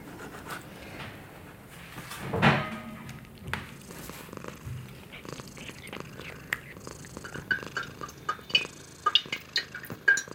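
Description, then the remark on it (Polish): A female cat purrs softly and steadily, a low continuous rumble with small clicks and rustles, and a brief louder burst of noise early on. “I między innymi nagrałam też jej mruczenie, bo któregoś dnia nie będzie już mruczeć”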